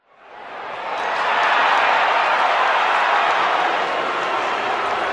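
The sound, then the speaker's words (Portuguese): Artificial stadium crowd cheering, played in a football stadium without real fans, swells up within the first second into a dense, steady roar of many voices, holding loud and continuous with a broad hiss-like texture and no distinct individual shouts. “É porque, mesmo sem torcida real no estádio, eles estão sendo motivados a trabalhar com um som fake de torcida.”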